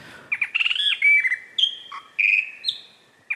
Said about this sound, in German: Den Weißbauchflöter